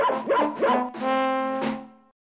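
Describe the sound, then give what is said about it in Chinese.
A dog, Boris, running along happily, gives three quick, bright barks, then lets out a long, steady, high-pitched whining howl that fades out. No one speaks. “狗狗 Boris 也开心的跟着跑了起来。”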